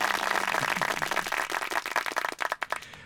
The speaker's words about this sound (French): Ah, les applaudissements, il faut. Hein.